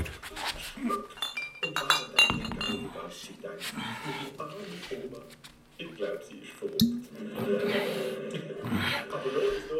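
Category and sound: household object, glasses clinking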